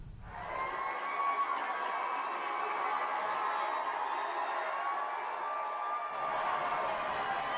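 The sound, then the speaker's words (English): A large crowd cheers and roars wildly, the noise swelling in quickly and staying loud and steady for the whole stretch, with no clear individual voices standing out. “Hearing the crowd go wild there.”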